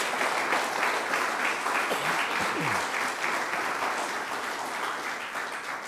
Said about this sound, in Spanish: Dele palmas al Rey de Reyes.